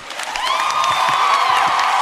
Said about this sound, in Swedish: Uh, jubel, halva publiken ställde sig upp. Sen går Bernie då ner från scenen och kramar henne och leder henne upp på scenen. Då blir det orkanjubel. Alla ställer sig upp.